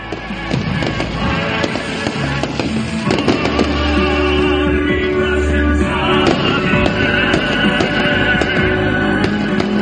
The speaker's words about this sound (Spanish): Y el domingo el colofón llegó con los fuegos artificiales